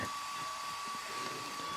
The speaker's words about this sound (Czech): Schovej se za ten fén. To je při mých rozměrech opravdu těžký. Vybíral jsem opravdu velký fén. Schovej se za něj. Tak tam nasaď aspoň ten difuzér.